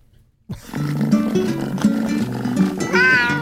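Over a steady bed of tonal, music-like sound, a single cat meow rises and bends near the end, fairly loud and close.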